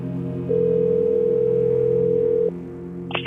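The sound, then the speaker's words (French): A telephone ringing tone of a call to Info Santé sounds once as a steady, mid-pitched electronic tone lasting about two seconds, over a low background hum, then cuts off abruptly. No one speaks. “La cinquième nuit, j'ai appelé Info Santé.”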